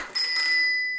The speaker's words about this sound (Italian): Il gatto del vicino è saltato sullo scaffale con i libri e i vecchi quaderni dello zio Elvis, facendo cadere tutto, anche la sua bici